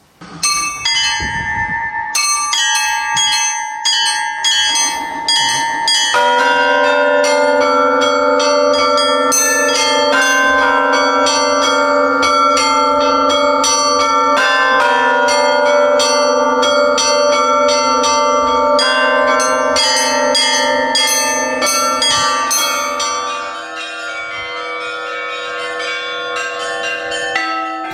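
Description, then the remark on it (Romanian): Church bells are pulled and ring out continuously, several bells overlapping in a loud, resonant peal with rich sustained tones that swell and linger, fading slightly toward the end, calling people to a church service. “În biserici nu este permisă lumina artificială, ceremoniile au loc la lumina lumânărilor, chemarea la slujbă se face prin tragerea clopotelor.”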